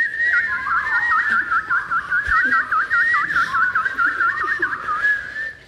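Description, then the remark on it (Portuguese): Someone whistles an imitation of little birds chirping, a continuous warbling trill with quick wavering pitch, fairly loud, lasting several seconds with no talking. “E alguns passarinhos que também passavam por lá.”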